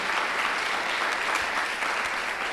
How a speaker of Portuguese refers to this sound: Você pode aplaudir o Senhor Jesus por pessoas assim, né?